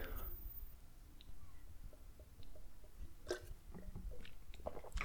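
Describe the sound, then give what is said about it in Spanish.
Quiet sipping of coffee, followed by a few soft gulping swallows and small mouth clicks against a low background hum, with no talking. “pausa para trago de café.”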